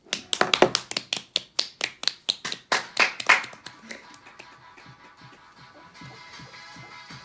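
Loud, steady rhythmic hand clapping, about a dozen sharp claps in quick succession, then trailing off into softer, irregular taps and faint rustling.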